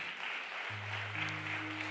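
Loud, sustained applause from a large crowd, a dense steady clatter of many hands filling the whole two seconds, with a low humming tone entering partway through.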